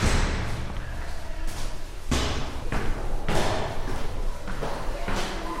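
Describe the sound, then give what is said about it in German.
Footsteps climbing a staircase to the second floor of an old building in a commercial courtyard in Neukölln, Berlin: a steady series of heavy thuds about once or twice a second, over faint background noise. “Ich nehme die Treppe, um in die zweite Etage zu kommen.”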